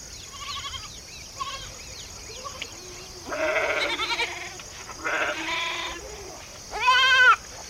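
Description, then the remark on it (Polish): A flock of sheep being grazed in the Valley of Sychem bleats, several overlapping calls rising and falling, with a few quieter bleats early on and a louder, wavering bleat near the end, no one speaking. “Po pewnym czasie bracia wybrali się paść owce w Dolinie Sychem.”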